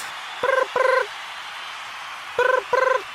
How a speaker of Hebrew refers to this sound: מה זה? יש פה טלפון אחר? יש פה טלפון אחר שמצלצל. הלו? הלו? למה זה עדיין מצלצל?